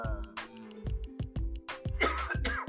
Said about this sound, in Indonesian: Eh, Pak, batuknya Pak. Batuk Haji.